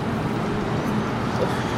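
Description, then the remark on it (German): A steady wash of city traffic noise on Hermannstraße shortly after eight, a continuous low rumble and hiss of passing vehicles with no distinct events standing out, fairly loud throughout. “Obwohl erst kurz nach acht, die Hermannstraße ist schon belebt.”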